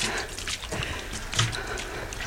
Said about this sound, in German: Es läuft quasi ein richtiger Bach durch diesen Durchlass.